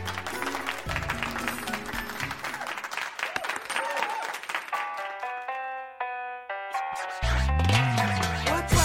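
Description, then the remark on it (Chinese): A burst of dense, steady clapping and cheering fills the opening seconds, then gives way to bright chiming musical tones and a swelling, rising synth sound at the end. “在这里要特别鸣谢秀童以及沐雨寒烟的倾力演出，让我们感受了一回大东莞的特色服务，掌声鼓励。”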